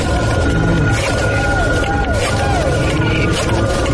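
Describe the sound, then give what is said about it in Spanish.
A dial-up modem connecting to the internet: a loud, continuous stretch of harsh static hiss with warbling, sweeping electronic tones running steadily throughout. “¿Recuerdas el sonido de tu modem conectándose a internet?”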